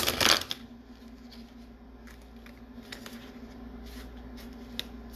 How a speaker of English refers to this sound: I did this wrong. Let me redo that shuffle.